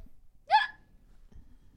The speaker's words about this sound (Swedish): Det där var ett spännande ljud. Hicka och rap samtidigt. Japp. Så, så låter det när jag gör sånt.